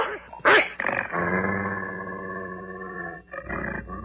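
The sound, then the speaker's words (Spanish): Approaching wolves growl: a sharp snarling burst, then a long, loud rumbling growl held for several seconds, ending with a brief second growl. No one speaks. “¡Los lobos se acercan, querido!”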